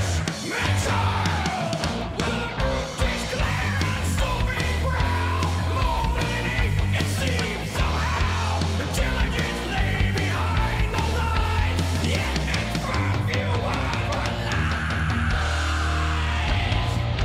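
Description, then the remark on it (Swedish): A man screams harsh, aggressive vocals over loud, dense heavy music with pounding low-end drums, continuous throughout and up front in the mix. “gillar att han skriker. Jag för mig att han inte skrek sist. Det låter aggressivare.”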